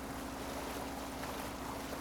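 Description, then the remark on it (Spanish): A small motorboat carrying five people heads out to sea to fish: a steady low engine drone mixed with constant rushing water and wind, continuous throughout, with no voices. “Nos dirigimos a la playa y nos subimos a la embarcación.”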